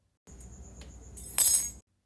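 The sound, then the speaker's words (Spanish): A metal cabinet key drops from a woman's hand and hits the floor, landing with a sharp, bright metallic clatter after a soft low rumble and a faint ringing tone. No one speaks. “Creyó morir de miedo, y la llave del gabinete se le cayó de la mano.”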